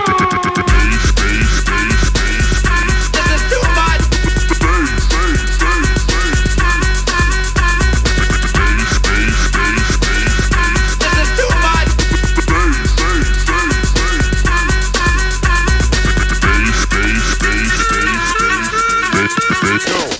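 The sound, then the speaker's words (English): A dense, resonant metallic hum with rich overtones, coming from inside a metal object, fills the whole stretch, loud and steady throughout with a faint fluttering pulse running through it and no talking. “curious humming sound that seems to come from inside the object.”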